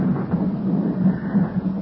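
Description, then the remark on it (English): A steady, deep, loud rumble of thunder from a storm rolls on without a break, with the low roar swelling slightly in places and no voices. “And then this storm.”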